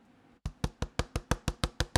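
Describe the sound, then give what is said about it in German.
Rapid, evenly spaced tapping on a hard plastic play button, about ten crisp clicks in quick succession after a brief quiet start, with no voices. “Und jetzt, das ist der Play-Button.”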